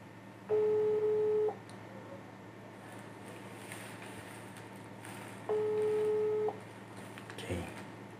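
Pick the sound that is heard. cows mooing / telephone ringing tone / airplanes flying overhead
telephone ringing tone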